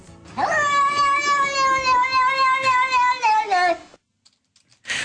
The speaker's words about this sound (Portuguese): esquecemos-nos de grandes vultos do YouTube, como o gato que diz não.